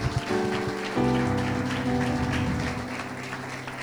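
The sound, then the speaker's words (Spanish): An audience claps steadily in a dense, continuous burst of applause for the Lord, with sustained music chords playing underneath throughout, no one speaking. “¿Alguien le puede dar un aplauso al Señor por esto?”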